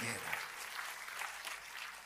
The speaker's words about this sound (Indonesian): Tepuk tangannya boleh paling meriah buat Tuhan